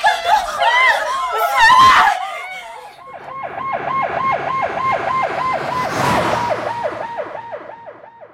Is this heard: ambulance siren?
yes